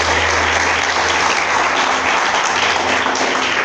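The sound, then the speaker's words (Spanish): A crowd applauds the Lord during a church sermon, dense overlapping claps forming a loud, continuous wash of sound with no break and no one speaking over it. “Denle la aplauso al Señor si se lo va a dar, por favor.”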